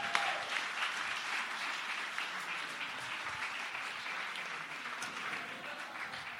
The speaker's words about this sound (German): Wenn das mal kein Applaus wert ist.